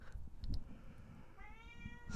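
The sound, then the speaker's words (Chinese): A cat meows for treats, a drawn-out, wavering meow with clear harmonics rising in the second half, preceded by a couple of short chirpy sounds, all over low background rumble. “sorry，我骂猫一下。”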